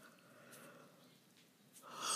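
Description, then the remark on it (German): A quiet, drawn-out yawn, breathy and airy, swelling into a louder exhale near the end, with no talking. “oh, sorry, gähnen”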